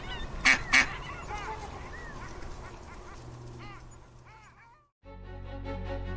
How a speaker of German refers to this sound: Äh, noch ein Stück Brot für die Enten.